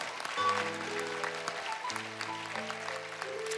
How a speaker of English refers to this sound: Clap for her.